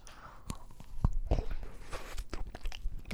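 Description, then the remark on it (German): Someone bites into a piece of Baumkuchen cake: a few soft, quiet crunches and chewing sounds with small clicks, no talking, ending in a slightly louder rustle. “ich habe hier auf jeden Fall neben mir stehen eine Schale voll Baumkuchen.”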